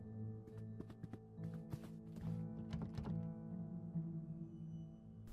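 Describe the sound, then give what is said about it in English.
The handle of a locked door is tried and rattled, giving a quick series of dull thunks and knocks over a steady low droning background before the noise fades out. “We try entering the final door next to us. This door is locked.”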